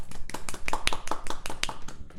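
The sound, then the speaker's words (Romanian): A short burst of applause from a small group, with quick irregular claps overlapping in a steady patter for a couple of seconds. “Și astăzi avem o surpriză, aplauze.”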